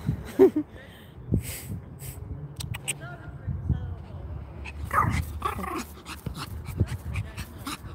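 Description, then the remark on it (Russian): A small dog whimpers in short, high-pitched whines, one burst early on and a cluster more a few seconds later, with soft rustling and faint voices in the background. “Да, ремень такой, иначе оторвется, побежит кусать больших собак.”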